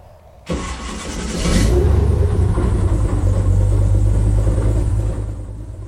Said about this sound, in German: die Fahrt mit den Airboats macht wahnsinnig viel Spaß. Man gleitet mehr oder weniger über das Wasser und driftet in die Kurven rein.